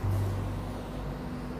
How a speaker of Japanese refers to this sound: なんか車がすごくうるさくなってきましたね